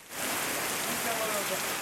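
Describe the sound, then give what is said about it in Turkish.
Heavy rain pours down in Turkey's Eastern Black Sea region (Ordu, Giresun, Trabzon, Rize and Artvin) in a dense, steady hiss that starts almost at once and holds at an even, loud level throughout, with no voices. “Ordu, Giresun, Trabzon, Rize ve Artvin'de bugün ve yarın yağmur tüm kuvvetiyle yağacak.”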